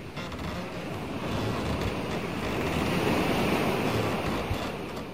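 Steady rushing of ocean waves on the open North Atlantic Ocean, where a caravel sailing ship is under way toward the Caribbean, a broad continuous wash that swells slightly in the middle, with a windy edge and no voices.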